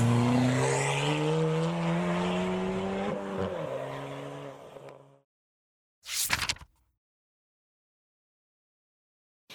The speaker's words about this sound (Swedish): Den skumma mannen får syn på dem och han hoppar snabbt in i sin bil och kör iväg.